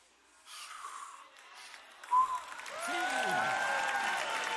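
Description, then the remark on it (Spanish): An audience shouts and cheers during a preacher's sermon, a broad wash of crowd noise that swells midway with sharp whoops and rising, sustained yells carrying through to the end. “¿Saben por qué están gritando por una lección de anatomía?”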